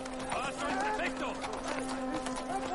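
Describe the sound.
Horse hooves clip-clop in a steady rhythm as a Roman prefect rides up to the gate amid a busy crowd of voices, with a sustained tone humming underneath.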